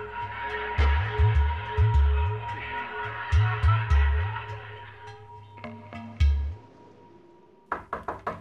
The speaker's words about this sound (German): Mit kleinen Fäusten hämmerte es an die Türfüllung.